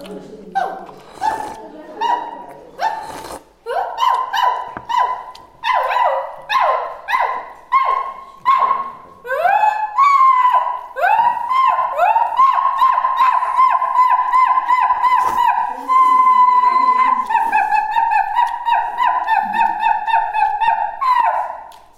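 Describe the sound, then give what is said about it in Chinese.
A person imitates a gibbon call with rising, whooping hoots that speed up into a rapid, warbling series of high-pitched notes, loud and sustained with no other sounds. “你是不长臂猿派来的卧底？”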